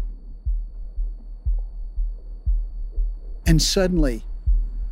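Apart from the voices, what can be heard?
heartbeat sound effect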